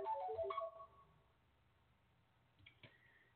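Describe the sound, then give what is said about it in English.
A phone ringtone plays a quick run of melodic electronic notes and cuts off after well under a second as the call is hung up unanswered. Near-silence follows, broken by a couple of soft clicks. “I just hung up that phone and didn't even answer it, okay?”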